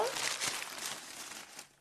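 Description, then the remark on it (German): A piece of paper crinkles and rustles in a steady, dry crackle lasting under two seconds, fading out softly at the end. “Hm, also da ist ein Handtuch drin, ein Stück Papier,”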